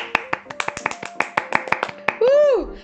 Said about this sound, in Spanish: Aplausos, por favor.